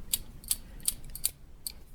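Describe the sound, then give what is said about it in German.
A series of sharp, bright metallic clicks, about five or six in an uneven rhythm, made by finger rings on a person's left hand tapping against each other; the person wears 18 rings. A faint low hum underneath and no talking. “Und du hast gesagt, als dein ähm, Enkel geboren wurde, hat er erstmal das Klicken gehört. Mach einmal bitte.”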